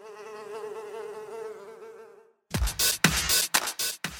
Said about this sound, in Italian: La prossima volta che vedremo una mosca svolazzare per casa, non schiacciamola e pensiamoci.